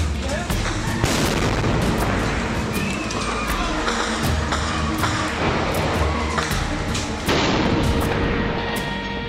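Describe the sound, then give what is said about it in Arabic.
Bombardment explosions in the Shuja'iyya neighbourhood, eastern Gaza Strip, during the Israeli assault at dawn on 20 July 2014, crack and boom again and again, loud and irregular, over a dense, unbroken roar of noise that never lets up. “إنهم سكان حي الشجاعية شرقي قطاع غزة خلال العدوان الإسرائيلي فجر العشرين من يوليو عام 2014 ولا يزال دوي القصف وصراخ النساء وبكاء الأطفال يتردد في آذانهم وتهتز له قلوبهم”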